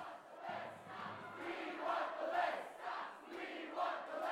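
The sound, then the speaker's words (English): A large crowd chants the words "mindless chanting" in unison, voices swelling and falling in a steady repeating rhythm, loud and dense throughout with no single speaker standing out. “And then, in an almost perfectly self aware way, they started chanting the words mindless chanting.”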